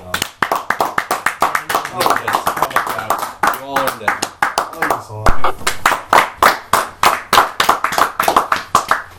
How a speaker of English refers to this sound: Let's just you know, clap it up.